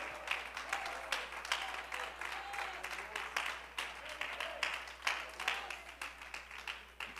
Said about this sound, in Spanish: Bríndele ese aplauso al Señor con gozo.